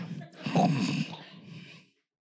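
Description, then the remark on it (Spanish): A person imitates the snoring of a sleeping 83-year-old man with a drawn-out, rattling nasal snore, rough and throaty, fairly loud, lasting about two seconds before falling silent. “Yo dije, ¿este está orando en lenguas o está roncando? Me dijo el Espíritu Santo, está roncando.”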